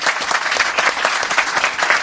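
An audience applauds steadily, a dense wash of many hands clapping at a fairly loud, even level throughout, with no voices standing out.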